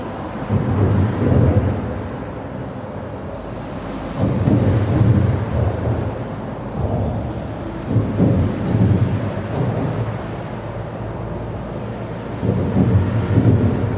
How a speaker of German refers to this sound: hören wir da LKWs, die über eine Autobahnbrücke donnern.